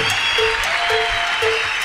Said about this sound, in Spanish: Siempre digo algo, a mí no me vaya a dar ningún aplauso, pero se lo va a dar al Señor. Ah, fuerte ese aplauso al Señor.